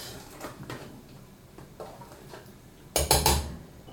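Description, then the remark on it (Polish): Half of a batch of fresh spiral pasta being stirred in a pot of boiling water: soft scraping and clinking of a utensil against metal, a few irregular taps, ending in a louder burst of clattering. No one speaks. “Przemieszam teraz i ustawię zegar na 5 minut.”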